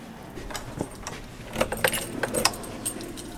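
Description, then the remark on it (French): A ring of Vachette keys jangle and clink in a series of bright, irregular bursts, fairly loud, with no one talking over them. “là, je vous vois sortir les clés euh, tel Saint-Pierre, vous nous emmenez.”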